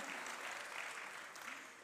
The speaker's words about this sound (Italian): amen, ancora applaudite, vi sedete e ascoltate, amen.